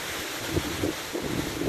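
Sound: strong wind gusts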